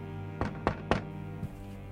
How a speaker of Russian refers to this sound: Грубый стук прерывает твоего поэта. Он открывает дверь, на пороге стоят НКВДшники звучит команда «Собирайтесь».